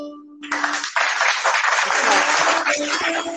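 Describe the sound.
A big crowd gives a standing ovation, bursting into loud, sustained applause after a brief held tone, the dense clapping steady for about three seconds with voices cheering underneath.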